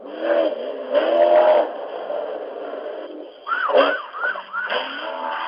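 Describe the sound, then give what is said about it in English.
Emergency vehicle sirens wail with drawn-out rising and falling tones, then switch to quicker yelping sweeps, fairly loud against a steady background rumble, with no one talking. “Sirens and everything.”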